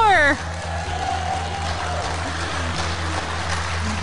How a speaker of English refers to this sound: I hope you can hear their applause because we have a great Church. It's on the west side of Columbus, just off 70 West.